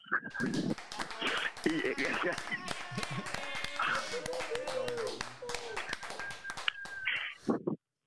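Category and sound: crowd, applause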